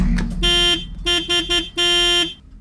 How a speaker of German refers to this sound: Wir haben der Stiftung Warntest beim Testen der Sirenen mal ein wenig über die Schulter geschaut. So, fangen wir jetzt mal mit dem Test Nummer 1 an.